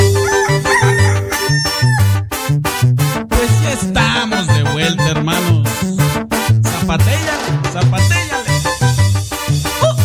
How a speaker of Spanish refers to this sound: que el canto del gallo es como un canto celestial.